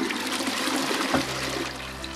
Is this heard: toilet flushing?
yes